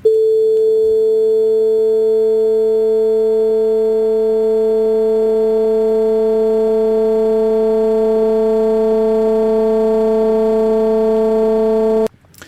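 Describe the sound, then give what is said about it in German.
A loud, steady test tone with a mid-pitched fundamental and many buzzy harmonics, its timbre shifting subtly in steps as overtones are added. It holds for about twelve seconds, then cuts off abruptly, with no talking. “Dadurch verändert sich dann das, das Spektrum und die, der Ton verändert sich.”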